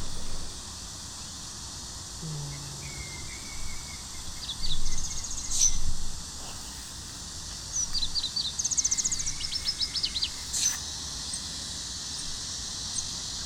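Birds chirp in short bursts, with a busy run of quick, high calls midway, over a constant high-pitched buzzing of cicadas that drones on throughout, heard from under a tree in 34°C heat. No one speaks.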